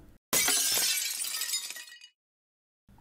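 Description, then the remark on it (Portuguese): A sudden loud crash of glass shattering, followed by about a second and a half of tinkling, scattering shards that trail off into silence. “De repente foi arrancada do meu sonho ao barulho de um vidro sendo quebrado.”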